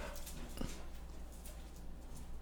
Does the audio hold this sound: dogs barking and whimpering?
yes